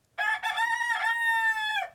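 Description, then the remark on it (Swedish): A rooster crows once, a loud, drawn-out cock-a-doodle-doo lasting under two seconds, rising in segments and then sustaining before it trails off, with no other sounds around it. “En kyckling eh, är ni. Eller tupp kanske. Det är tupp.”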